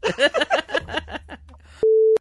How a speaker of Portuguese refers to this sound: Deu aquele barulhinho, deu, deu aquele barulhinho quando o cara morre, né? É, que tem a máquina.